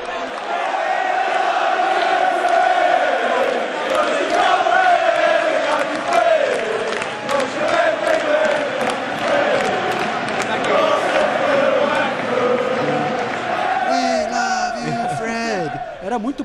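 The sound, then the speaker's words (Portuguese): A large crowd of Arsenal football fans at the Emirates Stadium chants the 'We love you, Freddy' song in unison, loud and sustained with rhythmic swells, the voices thinning into scattered shouts near the end as they stop after the first part. “Não, já parou, porque só canta a primeira e depois já, no, no Emirates já param de cantar.”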